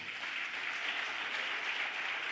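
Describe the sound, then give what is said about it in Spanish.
A crowd claps steadily and loudly, a dense wash of many hands applauding at once without pause, with no voices standing out. “¿Cuánto le un aplauso fuerte?”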